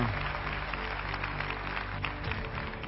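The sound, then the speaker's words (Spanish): Steady audience applause for a man in the audience who has been asked to stand up fills the whole stretch, a dense wash of many hands clapping at once, fairly loud, with a faint murmur of voices underneath. “Póngase de pie, Josecito, démele un aplauso.”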